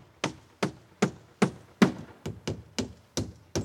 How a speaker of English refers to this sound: I heard hammering coming from out back.